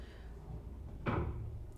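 A single dull knock sounds partway through, a soft, muffled thud rising briefly above a low steady background hum, with no one speaking.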